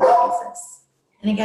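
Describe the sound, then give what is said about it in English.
Dogs bark at children outside while a person keeps talking, the barking mixed in under the speech before a brief pause, then voice and barking pick up again. “I apologize for my dogs. There are children outside and they like to bark at children outside.”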